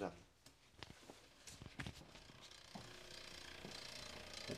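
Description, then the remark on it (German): The freehub ratchet of a cyclocross bicycle clicks in a fast, buzzing run of ticks, rising and fading as the wheel coasts, with brief mechanical knocks and a voice or two in the background. “Hast du gemerkt, ich bin mit dem Crosser. Ist auch ein geiler Sound.”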